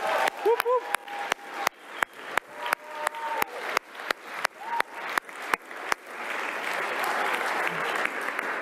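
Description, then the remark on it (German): A crowd applauds the technical crew, clapping in steady unison with sharp beats roughly every half second and a few whoops early on, then breaking into loud, continuous applause for the last few seconds. “Dicken, dicken Applaus für die Technik hier.”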